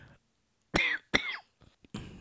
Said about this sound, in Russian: У каждого проявления этой короны были свои – вот у меня наиболее гадостно, как я уже все сказал, да, слабость и вот это вот самое, кашель